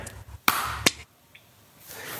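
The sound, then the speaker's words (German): Two sharp hand claps, a fraction of a second apart, made to synchronize two separate recordings at the start of a recording, crack out against quiet background hiss, the first slightly louder than the second. No one speaks. “Ich habe genau dann geklatscht, als ich deins gehört habe.”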